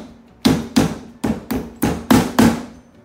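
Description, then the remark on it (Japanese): Six sharp hammer blows strike lasting tacks into a shoe resting on a hard table instead of on the knee, landing in a steady, evenly spaced rhythm. Each hit is loud with a brief ringing decay; no one speaks. “ちょっとうるさいですねテーブルの上でやると”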